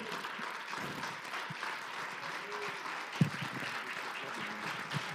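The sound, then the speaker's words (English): A church audience applauds steadily for several seconds, clapping for Jesus, a dense, even wash of clapping at moderate loudness with faint voices mixed in and a single sharper thump partway through. “Come on, everybody, keep those hands clapping for Jesus tonight.”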